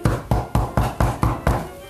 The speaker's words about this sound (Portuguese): Quando a vovó Garocha acordou de manhã, ouviu batidas na porta.